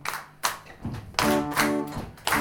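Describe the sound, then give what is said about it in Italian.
Sharp hand claps ring out at a steady pace with duller foot taps among them in a three-four waltz pattern, the first beat tapped with the foot, while a faint sustained tone hums in the background. “Bravissimo, ecco, come siamo messi con le mani. Uno lo battete col piede.”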